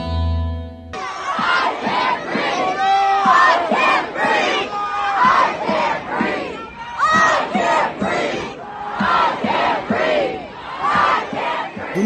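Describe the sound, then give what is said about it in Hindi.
A large crowd at an anti-racism protest following the killing of George Floyd chants slogans in unison, voices rising and falling in a steady rhythmic cadence, loud and continuous throughout. “दुनिया भर के अलग अलग हिस्सों में जॉर्ज फ्लॉइड की हत्या के बाद उभरे नस्लवाद विरोधी आंदोलनों के नारों की गूंज छाई हुई है”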